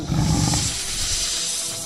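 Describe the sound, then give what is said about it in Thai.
A tiger lets out a deep, rumbling roar, loud and strongest in the first moment before trailing off into a breathy, raspy growl. “และครั้งหนึ่งมีเสือโคร่งดุร้ายตัวหนึ่ง เที่ยวขบกัดกินผู้คนเป็นอาหาร”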